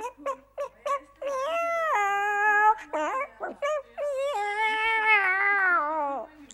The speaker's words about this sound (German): Und genau in diesem Augenblick, als meine Mutter das erzählte, starrte auch mein Kittykätzchen meine Mutter an und miaute ganz merkwürdig.